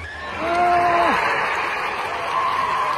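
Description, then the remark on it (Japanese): A huge crowd at Hiroshima Municipal Stadium roars in a loud, sustained wash of screaming and cheering during the 10th extra inning of a Hanshin versus Hiroshima baseball game, with one shrill voice rising briefly above the din early on. “広島市民球場が悲鳴とも歓声とも取れる絶叫に包まれた”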